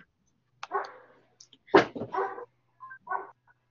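Several sharp barks and yips from small dogs in quick, uneven bursts, moderately loud, with a short whiny yelp near the end and no talking.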